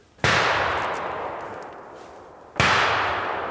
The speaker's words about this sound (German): Die Schüsse kommen vom Jagdfreund Jürgen.